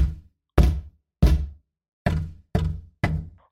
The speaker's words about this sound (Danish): Laura tog den største gren, hun kunne finde, og slog den så hårdt, hun kunne, mod den store træstamme